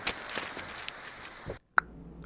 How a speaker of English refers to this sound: Now crumple that up and toss it into the sea.